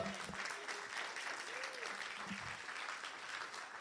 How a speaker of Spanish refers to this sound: Muy bien, denle aplauso al Señor, claro que sí.